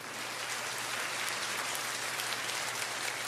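Warm, steady applause from a church audience after a testimony. A dense crackle of many hands clapping holds at an even level for the whole stretch with no voices over it.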